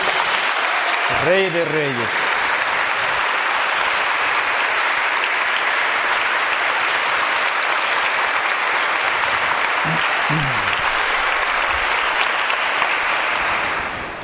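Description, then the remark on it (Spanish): A large crowd applauds for Jesus steadily for the whole stretch, a dense continuous wash of clapping, with a voice calling out briefly near the start and again around ten seconds. “Un fuerte aplauso a Jesús”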